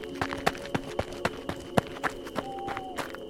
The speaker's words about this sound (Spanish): cuando de pronto escuchamos pasos de alguien corriendo sobre la grava.